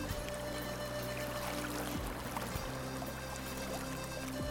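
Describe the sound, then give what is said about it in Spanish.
Water rushes and gurgles steadily in a continuous wash of sound, like a flowing stream, in the Cabilán de Lanzo community, with a faint low hum underneath and no voices. “Pese a todas estas amenazas, el sonido de agua se hace presente en la comunidad Cabilán de Lanzo.”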